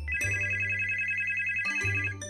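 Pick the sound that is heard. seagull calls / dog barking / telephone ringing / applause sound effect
telephone ringing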